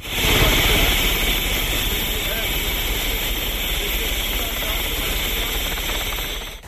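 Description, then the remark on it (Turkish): A helicopter roars, its loud, steady engine whine and low throbbing rumble filling the whole stretch without pause, with some indistinct background noise mixed in. It is arriving at the Bursa Özüce facilities, carrying coach Şenol Güneş and club president Recep Bölükbaşı. “Şenol Güneş Başkan Recep Bölükbaşı ile birlikte helikopterle Bursa Özüce tesislerine geldi.”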